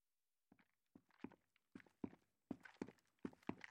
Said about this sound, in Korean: 행길 위쪽에서 워커 소리가 저벅저벅 들려왔다. 플래시 불빛이 길바닥 위를 땅강아지처럼 핥고 지나갔다. 순찰을 도는 방범대원들이었다.